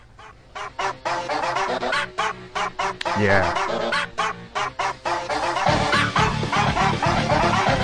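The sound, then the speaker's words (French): A bouncy retro tune from an indie video game soundtrack, remixed entirely from short pitched dog-bark samples, the yelps fired in quick rhythmic runs over a pulsing bass line that grows heavier near the end; a voice briefly speaks. “la bande originale du jeu indépendant Undertale, aux notes délicieusement rétro”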